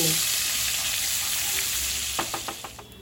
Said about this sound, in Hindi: जैसे कि एक चम्मच जीरा इसको अच्छी तरह से भून